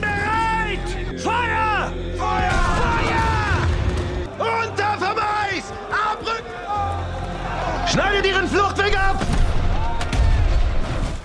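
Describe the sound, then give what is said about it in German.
Heavy cannon fire booms through a chaotic film battle scene depicting the Battle of Austerlitz on 2 December 1805, with several loud blasts and a deep rumble under men shouting and yelling throughout. “Deck die Kanonen auf! Kanonen!”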